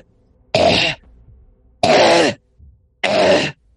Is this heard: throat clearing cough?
yes